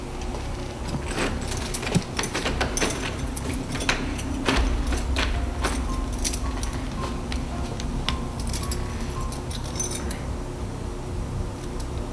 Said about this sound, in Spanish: Solamente se escuchó el chirrillo de las bisagras de la puerta al abrirse. No hubo sonido metálico de la chapa. Y, y, una chapa mecánica tiene que girar para abrir. Y esta no giró